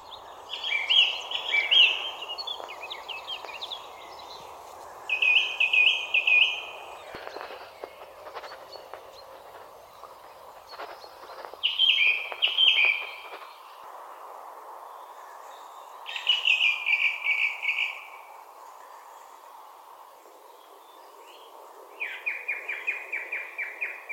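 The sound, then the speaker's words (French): Several song thrushes sing together in overlapping phrases, bright fluting bursts recurring every few seconds that drown out the other birds, over a steady hum of birdsong, with no voices. “Et ça dure, euh, on va dire, euh, quelques minutes, un quart d'heure, et hum, vraiment on n'entend plus que les grives.”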